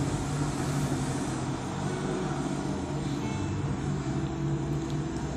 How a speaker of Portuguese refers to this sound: Nossa, que moto, hein?